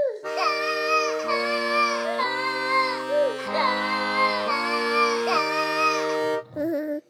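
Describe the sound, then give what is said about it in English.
A loud, continuous baby cry, after the baby is woken by an accordion sound, wails through a series of held, stepped pitches like a tune of about six notes, then breaks off into a short, lower whimper at the end. “His cry sounds like the melody to a timeless anthem.”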